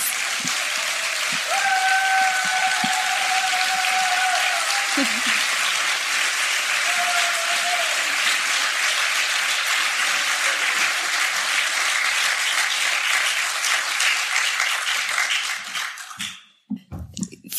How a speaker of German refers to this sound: Gebt ihr einen großen Applaus.